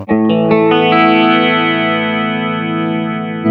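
An electric guitar plays a few quick chord strums that ring out into one long, shimmering sustained chord, processed through an effects patch meant to imitate a CE2 chorus. It stays steady and fairly loud, with no talking.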